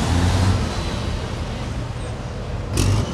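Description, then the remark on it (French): Heavy engine rumble and broad road noise from racing trucks leaving the paddocks at the 24 Hours of Le Mans truck race, steady throughout, with a brief louder whoosh near the end as one goes by. “On quitte les paddocks, les euh, pilotes font eux leur retour. On va les laisser passer.”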